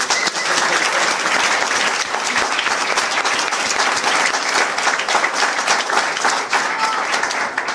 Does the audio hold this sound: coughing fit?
no